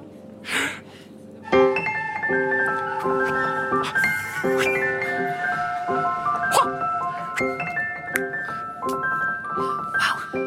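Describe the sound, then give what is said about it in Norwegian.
A flute plays a lilting melody of steady, sustained notes, with a short breathy burst before it begins and another near the end. “Og nå skal jeg spille på fløyta mi.”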